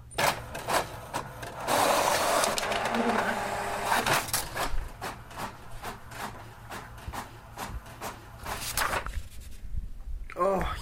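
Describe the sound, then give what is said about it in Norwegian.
A printer whirs and clatters as it feeds and prints a page, with rapid rhythmic mechanical clicks and bursts of grinding, ending in a few sharp clacks; faint voices murmur underneath. “Det var deilig lyd. Og den der når den faktisk printer.”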